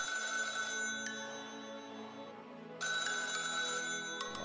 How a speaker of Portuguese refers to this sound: Já liguei lá o telefone, então eu vou atender. Já ligou aí, otário? Liga esse telefone aí. Tá tocando?